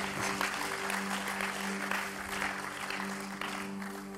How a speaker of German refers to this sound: Äh, es ist, äh, für, zum Teil auch ein bisschen Marathon, aber geben wir ihm einfach einen herzlichen Applaus, für dass du heute hier warst und äh, alles Gute.